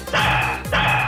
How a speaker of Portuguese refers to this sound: Olha o cachorro latindo.